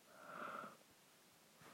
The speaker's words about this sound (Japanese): あくび出ちゃった